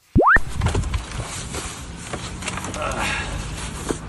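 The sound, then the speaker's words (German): A short rising whistle-like tone opens, then paper is stuffed into a full trash bin in Madrid: steady rustling and crinkling with scattered sharper crackles, continuing for several seconds at moderate volume. “Äh, so ungefähr hörte sich das an, wie ich ja vor diesem Mülleimer stehe und ähm, das Papier eben einräume.”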